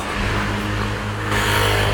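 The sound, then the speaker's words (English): A car or scooter engine hums steadily on a street in the quiet Piccolo Aventino neighborhood of Rome, its low drone holding fairly loud and swelling slightly near the end as it passes. No voices. “So we'll have sometimes a motorino, and a car, but all in all, it's a very quiet neighborhood.”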